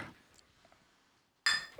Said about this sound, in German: Prost. Ja, du musst mal anstoßen kurz.